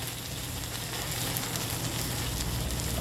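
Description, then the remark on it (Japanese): Cucumber takoyaki batter sizzles steadily in a hot pan, a dense, even crackle of hissing fat with a low hum underneath and no voices. “きゅうりのたこ焼きってえ何に合うやろね”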